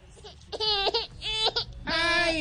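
A baby cries in three strained, wailing bursts, the last one the longest, over a low background rumble.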